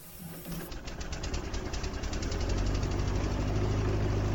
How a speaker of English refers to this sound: Sorry, it's a bit chilly. I'll, I'll turn on the space heater. Hold on.